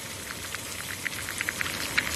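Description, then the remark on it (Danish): A pot of water with a few ordinary eggs in it boiling on a gas stove: a steady, soft rushing hiss with irregular, crackly bubbling pops scattered throughout, getting a little busier toward the end. No voices. “Gryde kogende vand over gas.”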